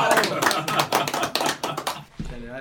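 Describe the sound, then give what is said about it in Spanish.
Audience applause welcoming a social media expert being introduced, a dense burst of many hands clapping for about two seconds, then quickly fading as a voice begins speaking. “Un aplauso.”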